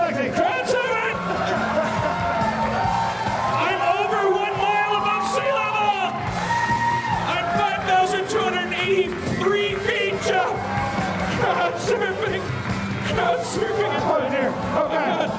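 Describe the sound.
A loud, dense audience cheers and yells continuously as a performer crowd surfs, with whoops and shouts rising over a constant roar of many voices for the whole stretch.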